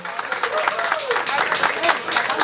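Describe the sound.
A crowd applauding steadily, dense overlapping claps forming a loud, continuous wash of noise, with a few faint voices and cheers mixed in.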